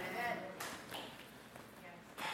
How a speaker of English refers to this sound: I thank you for that one clap.